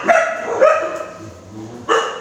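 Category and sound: animal, dog barking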